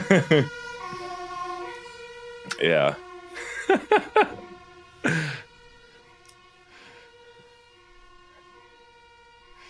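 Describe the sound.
A fire alarm sounds continuously, a steady, shrill electronic tone rich in overtones, holding throughout while people briefly laugh and speak over it.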